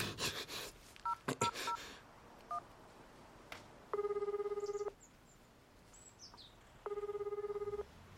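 A food delivery worker dials a customer's phone: a quick series of short electronic keypad beeps, then two long, steady ringback tones with a pause between them and nobody answers. Faint bird chirps linger in the background.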